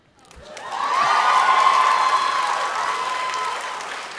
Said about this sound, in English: You have to keep your applause quick.